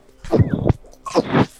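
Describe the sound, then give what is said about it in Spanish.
Two sneezes in quick succession, each a sharp, breathy burst, separated by a brief pause with no talking. “Salud.”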